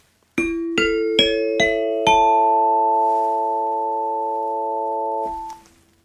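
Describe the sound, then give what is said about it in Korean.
A bright bell-like ding-dong-dang correct-answer chime of a quiz game segment: five quick struck tones in a rising sequence, the last ringing out and sustaining for a few seconds before fading. Loud and clear, with no voices. “딩동댕 소리 시원하게 한번 들려드리고 시작했습니다”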